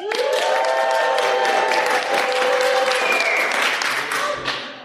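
A live crowd at Camp FI Southwest bursts into sustained applause with dense, rapid clapping, layered with loud cheers and whoops rising above it, steady for nearly five seconds before easing slightly at the end.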